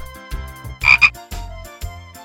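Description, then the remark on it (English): A toad croaks in a series of low, rattling calls, about four bursts in steady rhythm, the second loudest and most strained, with no voices. “On the road, baby geese see a toad with the soap.”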